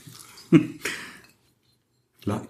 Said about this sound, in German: Ich wollte es ich wollt's, ich einfach mal so ein bisschen genießen. Die, diesen Klang des Schraubverschlusses auf Glas.